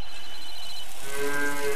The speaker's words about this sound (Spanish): Y el mugido de la vaquita y el sonido del teléfono nos dice que ha concluido o está concluyendo esta visita a la Casa del Rock Naciente del día 30 de abril de 2023.